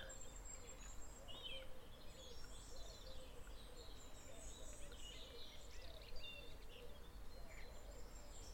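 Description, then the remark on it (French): A few birds that stay for the winter sing and chirp throughout, scattered high calls overlapping, over a steady low outdoor rumble with faint shuffling, alongside the rhythmic steps of joggers and the swing of Nordic walking poles. “cadencé des joggeurs, le balancier des bâtons de marche nordique, couvre les quelques chants d'oiseaux rester pour l'hiver.”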